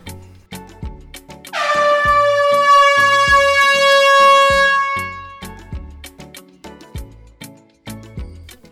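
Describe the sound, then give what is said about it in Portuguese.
A single long, loud air horn blast, its brassy tone sagging slightly in pitch, sounds over a steady, punchy drum beat that continues alone after the horn cuts off. “Pode soar a buzina que esse episódio já está começando.”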